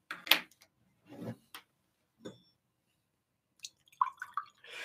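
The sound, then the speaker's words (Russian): Someone drinking water: a few separate wet gulps and swallows with small clicks and sloshes in between, fairly quiet, with short pauses and no talking. “Сейчас воды побью.”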